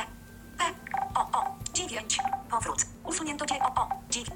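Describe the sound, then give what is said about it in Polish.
Screen reader feedback sounds from pressing different keyboard keys very quickly: a rapid, uneven string of short, mid-pitched electronic blips and clicks, overlapping one another and fairly soft, with no one speaking. “przyjechałem po różnych klawiszach bardzo szybko, że nawet jeżeli te dźwięki się skumulują, to, to nie słychać tego w jakiś taki sposób bardzo wkurzający.”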